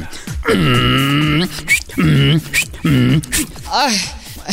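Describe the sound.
A person imitates a donkey's bray in front of a jury, with loud, strained vocal hee-haw bursts, three long harmonic blasts alternating with sharp breathy inhales, forceful.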